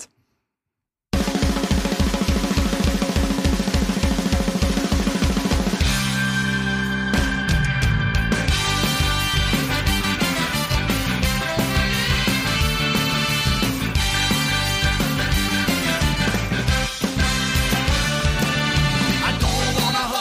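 After a brief silence, a loud, fast punk song bursts in with driving drums and dense, distorted guitars, shifting into a busier section partway through. No one talks over it.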